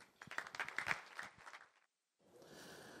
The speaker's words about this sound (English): Let's give a round of applause for our speakers.